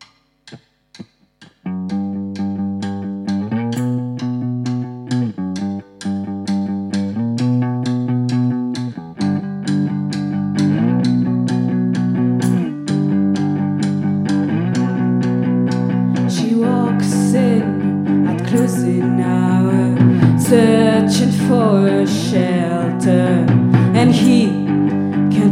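A live garage rock band plays with semi-acoustic guitars and steady drums. The sound starts after a brief pause, then builds louder and fuller, with crashing cymbals in the second half.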